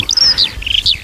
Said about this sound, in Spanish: este es el canto de la alondra